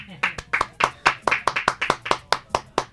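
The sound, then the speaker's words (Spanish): Steady, rhythmic hand clapping applauding women at a Rural Women's Day celebration in Cibargo, Baranoa municipality: sharp, loud claps repeating about four or five times a second for a few seconds, like a small group applauding in unison. “Por eso que hoy le damos un aplauso a las mujeres.”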